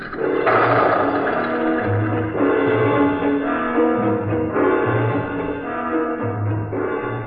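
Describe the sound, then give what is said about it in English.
A small plane's engine roars loudly and steadily, a dense continuous drone with a slight pulsing rise as it takes off in stormy weather, with no voices. “We took off.”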